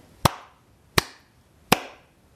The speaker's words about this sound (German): Also klatschte er dreimal in die Hände.